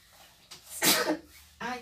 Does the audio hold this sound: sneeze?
yes